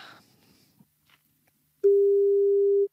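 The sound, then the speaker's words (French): After a near-silent pause, a telephone ringback tone sounds on an outgoing early-morning call: one loud, steady, clear burst held for about a second, with no talking. “On va essayer de l'appeler pour voir, pour lui souhaiter un bon anniversaire et, se dire bonjour.”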